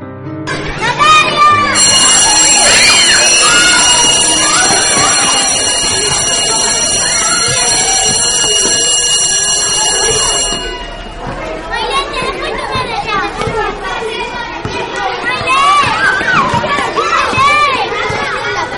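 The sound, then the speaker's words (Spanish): A school bell rings loudly and continuously for about nine seconds, a steady high metallic tone over a crowd of children chattering and playing, whose noisy voices carry on after the bell stops. “Suena el timbre.”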